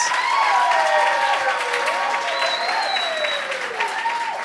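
An audience claps steadily for several seconds, a dense, even wash of applause with some whistling or cheering tones gliding over it, holding loud throughout before easing slightly at the end.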